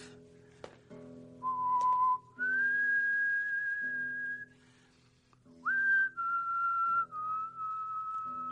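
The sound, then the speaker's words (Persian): A person whistles a slow, wandering tune of long held notes, clear, with short pauses between phrases and no talking. “سوت نزن آدم دیگه حق نداره سوتم بزنه؟”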